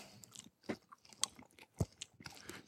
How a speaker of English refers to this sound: a bite of the chocolate.